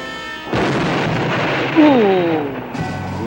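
An experimental jet plane explodes: a loud, roaring explosion bursts in and rumbles broadly for a couple of seconds, with a descending whine threading through it before the blast fades into a lingering noisy tail.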